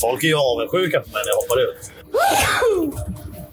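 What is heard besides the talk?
sneeze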